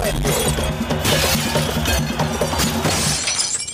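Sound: glass shattering sound effect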